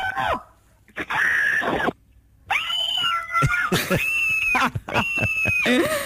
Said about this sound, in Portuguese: alguns destes gritos que parecem o …